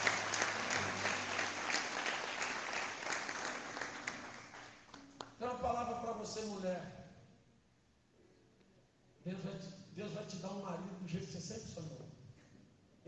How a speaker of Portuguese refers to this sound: Um aplauso ao Senhor Jesus.